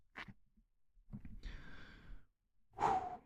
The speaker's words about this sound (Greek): Βαθιά ανάσα. Βαθιά ανάσα.